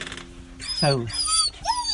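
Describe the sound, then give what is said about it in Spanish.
A dog named Henry, just arrived, whimpers in greeting, letting out a few high, wavering whines that rise and fall, with a person's voice briefly speaking alongside. “Ya llegó Henry, ¿lo estás escuchando? Ese es Henry, que ya empezó a saludar.”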